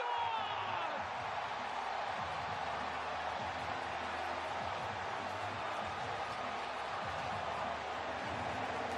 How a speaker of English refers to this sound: Just listen to that crowd roar.